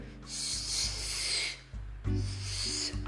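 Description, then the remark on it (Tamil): A voice imitates a snake slithering with two long, steady hissing breaths, the first lasting over a second and the second slightly shorter, moderately loud over a low background hum. “அப்படிங்கிற சத்தத்தோட ஒரு பாம்பு வந்துதான் அந்த மரத்துக்கு கீழே ஒரு பாம்பு புத்து இருக்கு”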